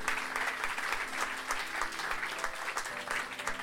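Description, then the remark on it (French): An audience applauds together, a dense, steady wash of many hands clapping at an even loudness for the whole stretch, with no voices rising above it. “Je crois qu'on peut vraiment applaudir pour ça.”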